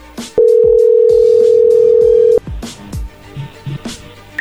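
A loud, steady telephone dial tone hums for about two seconds after the other party hung up the call, then cuts off abruptly, leaving faint clicks and handling noises as the line is redialed.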